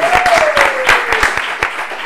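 A crowd claps steadily in dense, overlapping applause, with a few sharper claps standing out. A faint tone glides slowly downward in the background during the first second.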